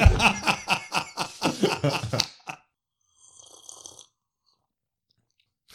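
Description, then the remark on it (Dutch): A rapid, rhythmic run of loud slurping and sipping sounds, like people tasting a very hot soup, stops abruptly and gives way to a brief, faint hiss before silence. “Ze hebben gewoon stoppen met de literatuur en we gaan gewoon lekker dit drinken de hele avond?”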